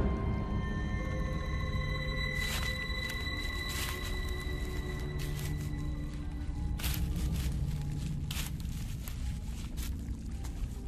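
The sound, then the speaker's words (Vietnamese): Slow, evenly spaced footsteps crunch and snap on dry twigs of firewood in a forest, about five steps in all, over a steady low drone with sustained tones in the background. “Tiếng bước chân đạp lên những nhành củi khô kêu lên răng rắc”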